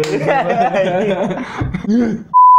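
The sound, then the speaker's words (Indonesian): Voices chuckle and chatter, then a mobile phone starts ringing with a loud, steady electronic tone that cuts in sharply at the very end. “nah, tadi ada telepon tuh kayaknya HP gua.”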